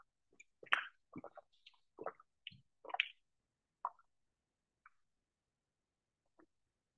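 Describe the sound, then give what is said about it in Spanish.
Water glugs out of a full bottle of water being emptied, in a quick run of irregular plopping gulps, thinning to a few scattered drips as it empties. No one speaks. “Voy a aprovechar, aquí tengo dos botellas de agua, las dos están llenas, pero voy a vaciar una.”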